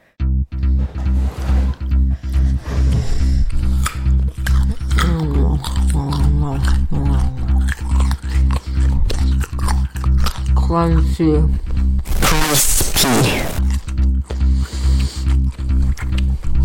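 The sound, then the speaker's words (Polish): A crisp carrot is bitten with one loud, crackling crunch partway through, set over a steady low droning hum and scattered wordless vocal murmurs and squishy mouth noises. “Sounds of Malchus krucha i chrupiąca. Sounds of marchew.”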